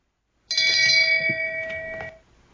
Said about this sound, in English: And uh, also, also uh, get get that same bell ready because uh, the PK is now called the strong kick.